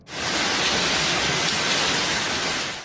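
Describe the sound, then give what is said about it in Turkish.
A sudden, short-lived heavy downpour in the Siverek district of Şanlıurfa pours steadily and loudly throughout, a dense unbroken hiss of water with a soft rumble underneath and no voices. “Sağanak bir anda kuvvetle bastırdı.”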